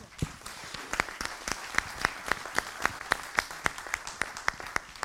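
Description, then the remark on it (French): An audience applauds the speakers of a first round-table panel, with a steady wash of many hands clapping and a few sharp, evenly spaced claps standing out in a quick regular rhythm for about five seconds. “Eh bien, je pense qu'on va applaudir nos, nos orateurs pour cette première table ronde.”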